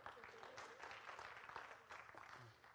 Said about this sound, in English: This month, I will, next Sunday actually, I will have been married 12 years to my wife. Now, you can clap for that.